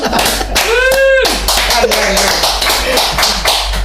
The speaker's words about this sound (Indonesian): Tepuk tangan dong.